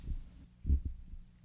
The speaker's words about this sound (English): I'm not recreating it, but trust me, it was his arm that did the fart noise.